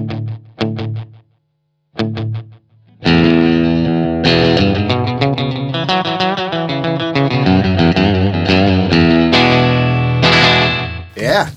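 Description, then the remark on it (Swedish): Electric guitar through a delay pedal set for slapback with a few repeats: a few short plucked chords ring out with trailing repeats, then a dense, driven passage of strummed chords and runs blurs together with echoing tails. “Sen vill jag ha några studsar.”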